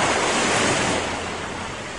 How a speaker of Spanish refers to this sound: También los acompañaban otros barcos y lo que sería un paseo tranquilo en el mar, con vientos suaves y olas tranquilas, se convirtió en algo asombroso, y es que se desató una fuerte tormenta. Y las olas caían sobre el barquito.